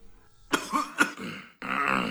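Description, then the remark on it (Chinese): A man gives three short, sharp coughs in quick succession, then a longer, raspy clearing of the throat that rumbles on until the end. “伯顿先生咳嗽了几下，清了清喉咙，捋了捋他那已经够整洁的胡子，然后再次开始道出那番经过准备的话来。”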